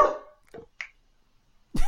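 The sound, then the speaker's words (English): Dogs bark in a few sharp, loud bursts with uneven gaps between them, starting with a strong bark, then shorter yips, and ending with another loud bark. No one speaks. “Oh, I nailed that opening, and the dogs ruined it.”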